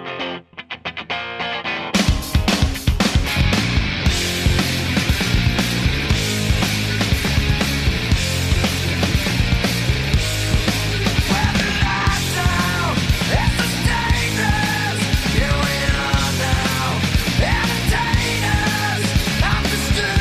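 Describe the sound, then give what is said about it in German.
A grunge rock song kicks in after a short quiet intro, with loud distorted guitars, pounding drums and a steady driving rhythm that stays dense and heavy throughout. “Das Musikmagazin Rolling Stone wählte dieses Lied 2004 zum neuntbesten Song aller Zeiten.”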